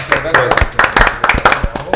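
sound effect, applause sound effect

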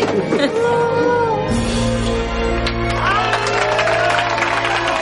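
crowd, group applauding

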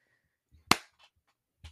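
human body sound, slow hand clapping

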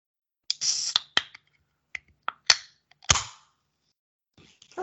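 food or drink, beer can cracking open

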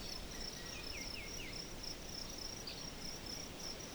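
ambience, forest ambience with crickets

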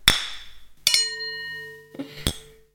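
household object, glasses clinking

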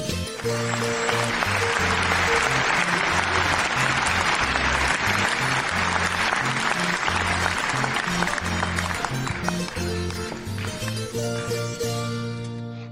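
crowd, applause

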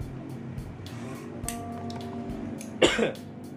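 human body sound, coughing

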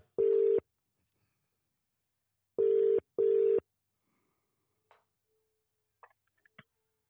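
signal or alarm, telephone ringing tone

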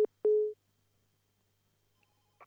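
signal or alarm, telephone busy tone

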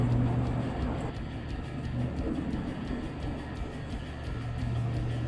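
vehicle, car interior road noise

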